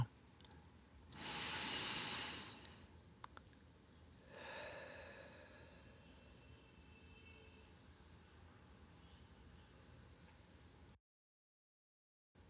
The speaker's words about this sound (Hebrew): קחו עוד כמה נשימות עמוקות, שאיפה מהאף ונשימה, נשיפה מהפה.